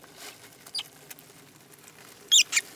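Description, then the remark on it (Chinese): Mice scurrying in a kitchen: soft, scattered scratchy patter throughout, then two sharp, high-pitched squeaks near the end, with no voices. “啊，妈，快来看，厨房里有老鼠，还有好多蟑螂，太吓人了！”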